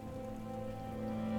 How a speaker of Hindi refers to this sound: इस बारिश की टपकती बूंदों के साथ मैं खो रहा हूं तेरी यादों में